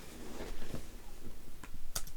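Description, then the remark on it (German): Scattered keyboard clicks tap out at an uneven pace, a handful of sharp keystrokes with one brighter click near the end, over a low room hum with no talking. “Kannst du nicht schnell tippen?”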